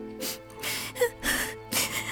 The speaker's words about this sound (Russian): Не плачь, Вера.